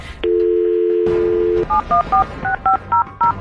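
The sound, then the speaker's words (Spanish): A steady telephone dial tone hums for over a second, then a telephone number is dialed as a quick series of about seven short, beeping touch-tone pairs in an uneven rhythm. “Bien, mire, quédese en la línea telefónica, vamos a marcarle.”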